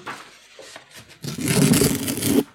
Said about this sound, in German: Übrigens auch ein sehr schönes Geräusch, das du ja liebst. Ja. Ich weiß nicht, ob dir das bewusst ist, aber du magst das Geräusch von ähm, Papier.